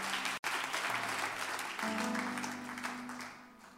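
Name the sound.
audience clapping hands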